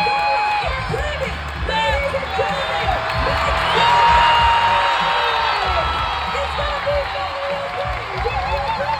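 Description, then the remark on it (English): A large crowd cheers and shouts loudly and continuously, with overlapping voices, whoops and a swell of excitement in the middle, a sustained roar of spectators at the CrossFit Games as Mal O'Brien and Danielle Brandon take the final sprint. “When Mal O'Brien claimed the final sprint alongside Danielle Brandon, well, you just listened to the crowd.”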